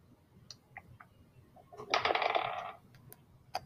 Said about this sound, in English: I hear dice. What was uh, the result?